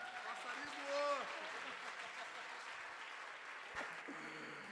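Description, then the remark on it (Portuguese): An audience at a church service applauds the Lord after a prayer in a sustained wash of clapping, fairly loud and steady, with scattered voices and brief vocal tones rising within the crowd noise. “Aplauda o Senhor, por favor.”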